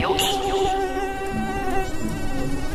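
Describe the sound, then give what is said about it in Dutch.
A mosquito buzzes steadily, its thin, high-pitched whine droning without pause for a few seconds, with a faint murmur of other sounds underneath. “Muggen.”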